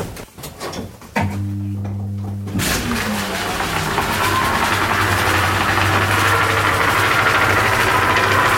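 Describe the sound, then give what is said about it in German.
The electric motor of a mill starts up with a low hum around one second in, then settles into a steady mechanical drone with a whirring, rushing layer of running drive belts and machinery that grows fuller and stays constant. “Ja, man hört die Riemen ja. laufen.”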